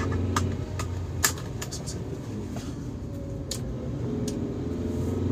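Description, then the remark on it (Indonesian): Steady low rumble of a car cabin on the move, with constant engine and road noise, a few brief clicks and knocks scattered through, and no one speaking; driving home from Thamrin. “Sekarang lagi di jalan pulang dari Tamrin ya seperti biasa sih kayaknya beberapa episode sebelum ini juga di mobil kan ya”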